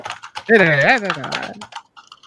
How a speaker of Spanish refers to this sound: Suena como el teclado mecánico. Pon el sonido por favor, el teclado mecánico, por favor. ¿Quieres que escriba algo en el teclado mecánico?